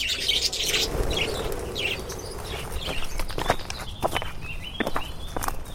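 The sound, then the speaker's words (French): Several birds, kept behind a restaurant, chirp and tweet in quick, irregular bursts over a steady low crunching like footsteps on gravel. No one speaks. “À l'arrière de son restaurant, Jean-François élève une multitude d'oiseaux”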